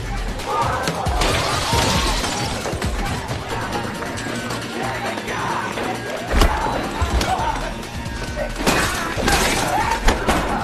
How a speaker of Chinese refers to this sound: 只见这精心布置的场子被对方砸得七零八落，男主呢技能全放，奋力的守家呀。